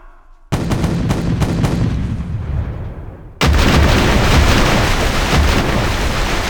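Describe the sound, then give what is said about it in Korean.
Booming cannon fire aimed at the guesthouse where envoys are lodging erupts abruptly, several sharp blasts in quick succession rolling into a continuous thunderous barrage, then a second, even louder wave of rumbling explosions takes over and sustains to the end. No voices. “사신들이 묵고 있는 객과 낮바다에다 대포를 쏴라!”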